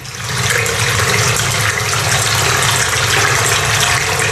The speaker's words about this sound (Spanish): Estamos en el interior de una cueva. Ese sonido que oyen de fondo es el del agua que nos rodea y que impacta contra las paredes.